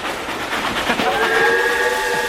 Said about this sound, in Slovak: Tak sme si to vyskúšali, počkali sme, kým prejde vlak. To bol ako Armageddon.